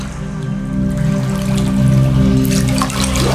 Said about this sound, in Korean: 조금 후 안방에서 물소리가 났다. 욕실에서 흘러나온 물은 안방을 적시고 문틈으로 흘러나와 거실 바닥을 적셨다.